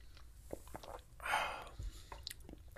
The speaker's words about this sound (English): I'm going to take a sip of my coffee real quick, if you'll excuse me.